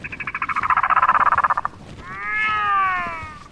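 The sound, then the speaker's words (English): A rapid, loud rattling chatter of pulses from an albatross runs for over a second, followed by its drawn-out, wavering, braying wail, with no one speaking. “I'm here to see what all the cold weather critters who've adapted to this dry, chilly climate are up to, like the albatross,”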